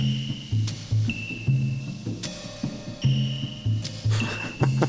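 A soundtrack song plays loud and close, with a steady pulsing beat, deep bass notes and bright sustained synth tones over a repeating rhythmic pattern, with no talking over it.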